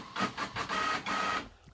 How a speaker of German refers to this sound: Dein Drucker macht gerade Party. Jetzt wird, wird hier gedruckt, während ich ähm, Podcast aufnehme.